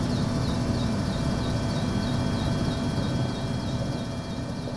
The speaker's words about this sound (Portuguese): Há alimentos entregues em mão, mas desta estrada também partem os helicópteros que levam redes com sacos de alimentos que depois deixam cair onde as pessoas estão em zonas inacessíveis.